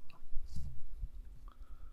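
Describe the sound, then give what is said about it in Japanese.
Soft, low chewing, drinking and mouth sounds with a few irregular crunchy bursts and small clicks, fairly quiet, with no talking, recorded on a TASCAM DR-07X with its microphones spread wide. “飲み食い咀嚼音”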